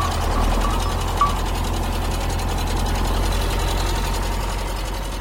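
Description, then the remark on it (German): A tractor driven by a man in the countryside of Argentina runs steadily, a low, throbbing idle with a faint rhythmic knock and rattle, holding an even loudness throughout with no voices. “Ach, da sehe ich einen Mann auf einem Traktor.”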